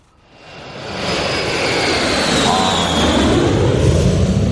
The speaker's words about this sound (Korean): 비행기 소리 한번 다시 들을까요?